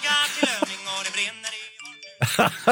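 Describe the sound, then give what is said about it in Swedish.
A phone's text message chime sounds as someone sends an SMS, bright, tinkling electronic tones ringing clear over outlaw country music playing in the background, with a louder burst near the end. “det var någon som smsade här när Jonas oh. skulle spela Outlaw Country”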